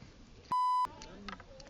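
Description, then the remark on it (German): A loud, steady electronic censor bleep cuts in for about a third of a second, a pure tone covering an insult, briefly replacing the surrounding conversation, with voices murmuring before and after it. “Das piepen wir.”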